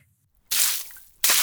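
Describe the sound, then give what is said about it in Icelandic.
A loud splash as a bucket of ice-cold water is dumped all at once over someone, a hissing wash lasting under a second, then a second brief gush right after. No voices. “Öskur skúla skólastjóra bárust allarleði på þakk sem að fjekk krakkana til að bregða svo svakala að þau mistu vassfjötuna. Á sama tíma þá hleypur Sippa skelmir út og fekk allt ískalda vatni yfir sig.”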